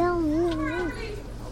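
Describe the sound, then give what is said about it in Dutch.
A child's high, wavering voice rises and falls over a low steady hum, with faint chatter of other kids in the background, at a school playground on the day the school reopens. “En dus zijn we onderweg naar het schoolplein.”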